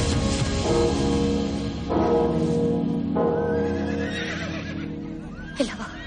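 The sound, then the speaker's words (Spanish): Two horses neigh and whinny loudly and close by, several long, wavering cries following one another over a few seconds, ending with a brief sharp knock. “Valerie ve que hay dos caballos cerca de ellos mediodía cabalgando”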